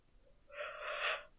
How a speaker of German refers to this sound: Ah, Entschuldigung, jetzt habe ich gegähnt.